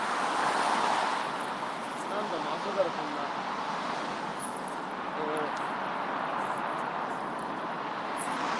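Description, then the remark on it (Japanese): Dense car traffic rumbling through a road tunnel, a steady, enveloping roar of engines and tires that stays loud and unbroken for the whole stretch, with no single vehicle standing out. “はい、ちょっと今からトンネル入るんですけど、ちょっと車の音で騒がしいかもしれないけど、お許しください。”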